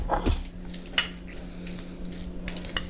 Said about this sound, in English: All right, um, so now we have to mix up the mayo, sriracha, salmon, rice.